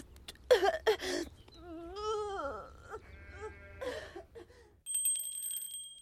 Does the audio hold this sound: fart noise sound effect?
no